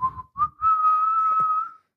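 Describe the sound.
A person whistles to imitate wind: a few short, fairly loud notes, then one long sustained note held steadily for over a second before fading out, with no talking.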